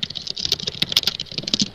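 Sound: computer keyboard typing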